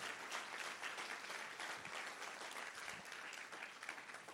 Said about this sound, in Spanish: Vamos, si usted lo cree, denle un aplauso, pero de agradecimiento a Dios.